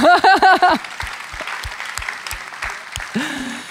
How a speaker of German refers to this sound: Ihr könnt gerne klatschen.